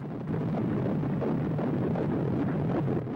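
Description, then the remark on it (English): The heartbeat of an unborn baby just 28 days after conception heard through a monitor, a steady, fast, muffled whooshing pulse wrapped in dense rumbling static, fairly loud and continuous with no voices. “You are listening to the sound of the heartbeat of an unborn baby just 28 days after conception.”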